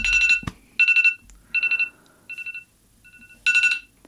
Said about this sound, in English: Why is my ringer on so loud? That gave me a heart attack.